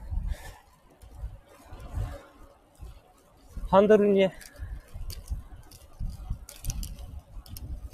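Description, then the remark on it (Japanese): Irregular rattling and clattering from a bicycle bumping over a cracked road, which also has a wire lock fitted that can clatter, with low rumbling jolts and faint ticking throughout, while a man talks briefly partway through. “えっ、ー、とね、ちょっとね、多分ガタガタガタってすごく聞こえると思うんですけど、道がね、ひび割れてるのと、あとね、”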